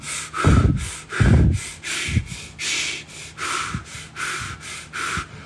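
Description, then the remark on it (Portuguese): A person demonstrates shallow breathing, the way most people breathe through the day using a third of their breathing capacity: quick, shallow bursts, about eight short airy inhales and exhales in a steady rhythm, the first two a bit louder and harsher. “A maioria das pessoas usa um terço da respiração é, da sua capacidade respiratória para respirar ao longo do dia.”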